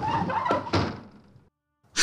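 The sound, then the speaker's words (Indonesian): A wooden side window is pushed upward with a stick of wood, with a rough scrape and two hollow knocks, then a short silence before another sharp, noisy burst. “lalu mendorong jendela itu ke atas supaya terbuka lebih lebar.”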